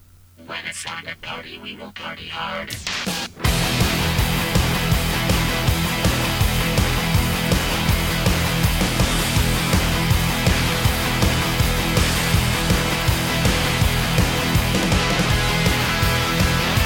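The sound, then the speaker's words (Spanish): After a few near-silent seconds, a loud, dense intro theme bursts in and drives on with a steady, punchy beat, filling the rest of the stretch without letup. “En cualquier eh, caso, lo que seguro que se van a comer es una intro la mar de maja, ¿no?”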